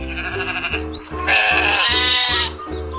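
A sheep bleats loudly in one long, wavering call, preceded by shorter bleats, with steady background noise underneath and no talking.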